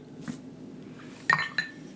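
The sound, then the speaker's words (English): Two bright clinks of a fresh ice cube striking a glass for a vodka drink, the first sharper and louder, followed shortly by a softer second knock, over a low quiet hum. “I'm going to treat you to a fresh ice cube.”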